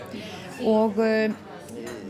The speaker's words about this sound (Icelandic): við sitjum hér inn á bláu konunni, þeim uh, eh, þekta og notalega kaffistað hér í göngugötunni á Akureyri